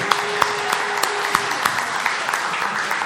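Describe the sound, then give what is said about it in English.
An audience breaks into a round of applause, a dense, steady wash of many hands clapping with a few sharper claps popping out, sustained for about three seconds without any talking. “Give this guy a round of applause because he nailed it.”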